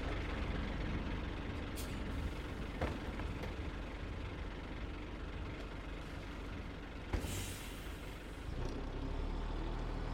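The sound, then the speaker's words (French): The engine of a number 103 bus rumbles steadily, with a brief sharp hiss of air brakes releasing near the end. No one speaks. “Bon, allez, venez, suivez-moi, on va prendre d'abord le train, direction Paris, et ensuite le bus numéro 103, et on descendra à l'arrêt cimetière de Thiers.”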